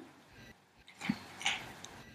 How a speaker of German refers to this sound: Hört man das? Ja, hört man. Siehst du, der, der Pegel schlägt ja. ein bisschen aus. Also, es ist kein Creep, der hier sitzt und irgendwie vor sich hinschmatzt. Unser Hund frisst im Hintergrund eine Karotte. Ja. Und es hört sich so an.